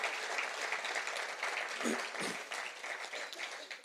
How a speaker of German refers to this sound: Und vielleicht können wir ihm mal einen Applaus geben.